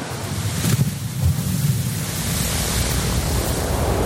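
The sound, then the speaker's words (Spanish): A steady, loud droning roar inside the cabin of a small propeller plane flying to Campbell River on Vancouver Island, crossing the Strait of Georgia, with a deep engine hum under broad rushing noise and no voices. “Estamos de camino a bordo de una avioneta con rumbo al poblado de Campbell River, el río de Campbell que se encuentra en la isla Vancouver.”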